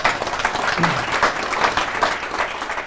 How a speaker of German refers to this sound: Ich denke, wir bedanken uns mit einem herzlichen Applaus. Vielen Dank.